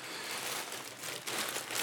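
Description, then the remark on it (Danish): Continuous crinkling and rustling of thin plastic as something is taken out of a small yellow bag, with a few sharper crackles near the end and no voices. “I dag, så øh, har jeg en lille gul pose om bag ved mig, jeg lige henter noget op fra.”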